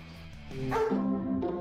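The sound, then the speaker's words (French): Emmanuel Macron's dog barks in a quick run of high, yelping barks that bend in pitch, in a campaign video on TikTok, with no one talking. “Emmanuel Macron et son chien”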